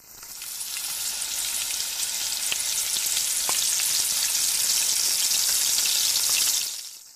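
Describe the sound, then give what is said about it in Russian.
Vegetables frying in oil in a large pan over high heat, a steady dense sizzle with crackling pops and a few sharp spits, holding an even loudness for several seconds before fading out. No one speaks. “Добавьте масло и обжарьте овощи до готовности.”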